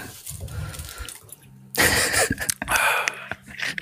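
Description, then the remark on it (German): Water is poured for a drink, starting quietly and then turning into a louder, steady splashing rush that runs for a couple of seconds, with no talking over it. “Ah, dann nehme ich mir, da gönne ich mir gleich einen Schluck Wasser und dann ein ASMR-Wasser.”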